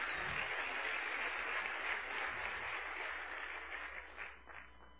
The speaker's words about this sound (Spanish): Ok, siéntate, por favor, y un aplauso. Un aplauso.